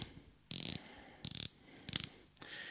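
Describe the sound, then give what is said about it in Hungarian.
A watch's rotating bezel, released by lifting a plastic locking band, ratchets around in short bursts of rapid, crisp clicks, about four quick runs separated by brief pauses, fairly clear with no talking. “ez a műanyag sáv, és ez nem lünetta védő, hanem ez maga a rendszernek a része, és így ki lehet pattintani fölfelé, így hallatszott a kattanás, és utána aktiválódik csak a lünetta, a forgatható lünetta, és csak akkor forog. És elég-elég jó hangja van.”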